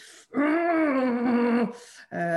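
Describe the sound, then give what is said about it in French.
A person imitates a child's growl with a low, sustained voiced groan that lasts over a second, loud, followed by a short breathy sound and the start of another vocalization. “C'est taper du pied, grogner,”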